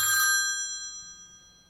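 A telephone rings once, before a voicemail greeting, with a bright, metallic, bell-like tone that starts loud and slowly fades away. No one speaks.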